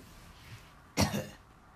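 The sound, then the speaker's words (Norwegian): A single sharp cough, from a chip stuck in the throat, bursts out in two quick rough pushes, then fades back to quiet with no talking. “Det er alltid litt skummelt å hoste når man lever i en pandemi.”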